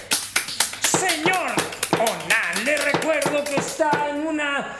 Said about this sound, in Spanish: Un aplauso para él.